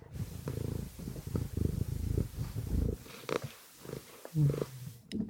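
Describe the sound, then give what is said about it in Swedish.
A cat named Sigge purrs loudly and steadily while sitting on a computer, a low rhythmic rumbling that pulses continuously, with a few brief snuffly breaths near the end. “om du pratar i micken eller om du pratar i en katt”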